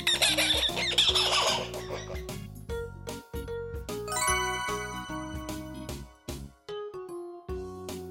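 A bright page-turn chime signalling it is time to turn the page: a tinkling, melodic jingle of ringing tones that plays clearly for several seconds, with short pauses between phrases.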